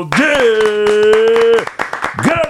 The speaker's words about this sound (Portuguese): Vamos aplaudir!